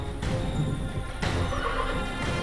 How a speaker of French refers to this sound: la bête redouble de colère, menace de ses sabots quiconque ose l'approcher. Le roi fronce les sourcils. Après quelques minutes de lutte, le constat est sans appel, ce cheval ne peut pas être dompté